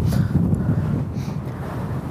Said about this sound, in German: Also mit Wind von hinten ist total stark. ja, so ist ja richtig schlimm. Nee, ich glaube, so ist ein bisschen besser.